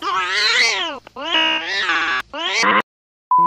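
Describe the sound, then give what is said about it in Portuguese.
A cat meows loudly, three long, wavering, drawn-out cries in quick succession with short gaps between them, followed by silence. “Calma aí, gata, calma aí. Desculpa aí.”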